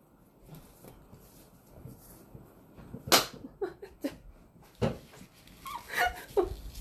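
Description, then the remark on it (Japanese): A sharp, loud hand slap rings out, swatting and killing a mosquito that had landed, followed by a few softer smacks and rustling movements against a quiet background. “すみません今ちょっと蚊が止まって勘が止まったためちゃんと音が入っちゃごめんなさいちゃんとですね仕留めることができました”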